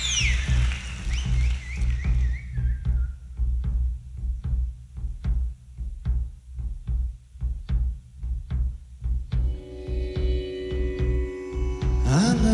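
Loud live rock music recorded at Wembley Stadium on a 1975 tour plays with no voices: a heavy sustained bass drone, a descending synth sweep, steady drum hits at a driving pulse, then bright held keyboard chords joining near the end.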